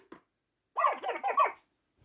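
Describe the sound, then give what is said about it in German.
A short synthetic creature cry, a warbling chirpy call of about four quick pulses lasting under a second, bright and fairly loud against silence, from a small brown owl-like video game monster about 0.3 meters tall. “Der Ruf hört sich so an.”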